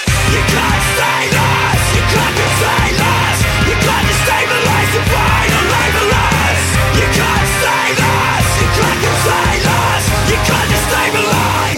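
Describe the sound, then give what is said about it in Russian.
Loud, dense heavy guitar music with screamed vocals, driving hard and steady throughout with no pauses, the distorted wall of sound filling the whole stretch. “Сейчас же начнется какое-то э, жесткое волосато-гитарное Кричалова, и бедные старенькие сердечки не выдержат.”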